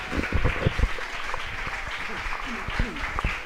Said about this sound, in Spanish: denle ese aplauso bien fuerte al Señor, hermano.